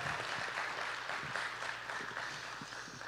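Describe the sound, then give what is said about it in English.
An audience at Veritas Church applauds a guest from the Point Church in Cameron steadily for about three seconds, a dense, even wash of many hands clapping at once, with no voices over it and a faint low hum underneath. “Yeah, you, we can we can applaud that.”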